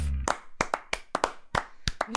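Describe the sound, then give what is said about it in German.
Sharp hand claps from a small group of hosts clapping for themselves after their show's intro, about nine or ten quick smacks in an uneven, loose rhythm, with a low voice murmur at the very start. “Scheiße, das ist natürlich, dass wir uns immer selbst zu klatschen, Alter.”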